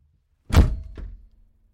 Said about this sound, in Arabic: ثم أقفلت الباب بكل قوة.